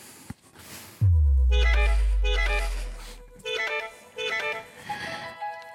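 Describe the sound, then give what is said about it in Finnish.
Short bursts of horn music play in repeated melodic phrases of bright, sustained notes, opening with a deep booming low tone that slowly fades underneath, with no voices. “Hei, kuunnellaan vähän aikaa torvin musiikkia tähän väliin.”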